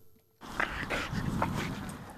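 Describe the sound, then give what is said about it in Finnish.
After a brief quiet moment, a grey Norwegian elkhound vocalizes with a run of excited whines and short yelps, fairly loud and continuous, with no one talking. The leashed dog is used to scare barnacle geese away from park areas in Tapiola, Espoo. “Harmaat Norjan hirvikoirat ovat ornitologi Hannu Holmströmin mukaan erinomaisia hanhikoiria”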